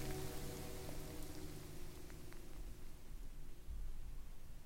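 Steady rain hisses, a dense wash of patter with low rumbling handling noise from someone out on a walk in a downpour while breaking in the microphone. No one speaks.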